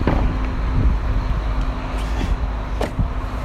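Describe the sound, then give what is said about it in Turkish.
A queue of four cars idles at the border crossing leaving Turkey for Bulgaria, their engines making a steady low rumble with a faint hum, broken by a few soft clunks like doors or vehicles shifting. No one speaks. “Arkamızda dört arabalık bir kuyruk oluştu.”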